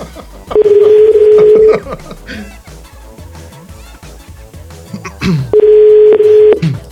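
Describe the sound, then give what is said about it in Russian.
A phone line's ringback tone sounds twice as a man calls a woman's phone, each a steady buzzing tone lasting over a second, separated by a pause of several seconds with faint background noise between them. “Ну, ну настолько я мужчина, чтобы она понимала, что у нее звонит телефон.”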